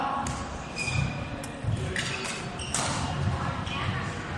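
Several crisp badminton racket strikes on a shuttlecock ring out at irregular intervals as a good doubles serve is demonstrated, each a short sharp pop over steady background noise.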